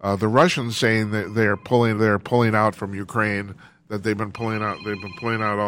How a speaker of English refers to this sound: but sorry my phone's my phone's ringing.